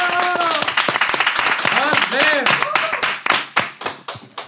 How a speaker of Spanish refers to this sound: Bueno, aplausos, aplausos.